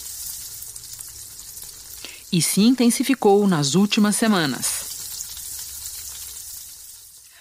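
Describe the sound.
A steady sizzle of food frying in a hot pan runs throughout, a dense crackling hiss that continues under a man's brief spoken line in the middle and carries on alone afterward.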